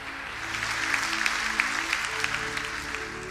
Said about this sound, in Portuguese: você pode aplaudir o Senhor porque Ele é bom.